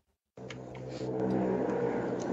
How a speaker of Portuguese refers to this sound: Ó, mas a moto nós escuta, né? É. é a moto, a moto é minha.